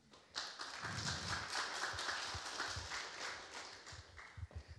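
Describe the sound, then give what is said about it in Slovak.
Audience applause: many hands clapping in a dense, steady patter that starts abruptly and holds for several seconds, with a few duller thumps underneath. “Áno, potlesk si zaslúži.”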